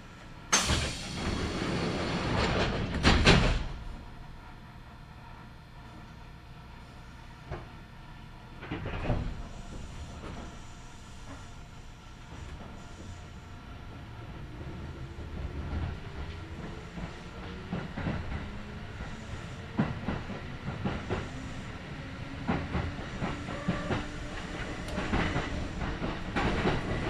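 A Kintetsu Nagoya Line local stopping train in Japan running from Shiohama toward Shiroko: a loud clunk and hiss at the start, then a steady rumble with rhythmic clickety-clack of wheels and rising motor whine as it picks up speed.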